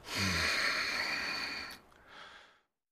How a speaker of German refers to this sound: Ich fand oh, ja ich den Stöhner am Ende ziemlich so von ihm, dieses Atmen so. Das fand ich eigentlich das Geilste.